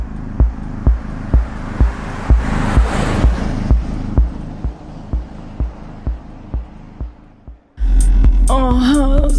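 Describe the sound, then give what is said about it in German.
Muffled bass music thumps in a steady, quick beat from inside a Toyota car in a forest over a low hum, then abruptly turns louder and clearer with brighter tones near the end. “Aus dem Inneren des Wagens drangen dumpfe Bässe, die den Wald zu erobern schienen und eine eigenartige Spannung in der Luft hervorriefen.”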